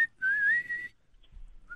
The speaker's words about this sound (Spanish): no chifles, te está diciendo.